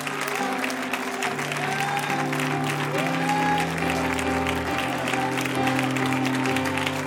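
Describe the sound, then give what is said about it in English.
A large audience claps and cheers steadily to the Lord, the dense applause continuing while sustained organ or keyboard chords ring underneath throughout. “Come on, clap your hands to the Lord. Let's let, let's let it just roar out for a moment.”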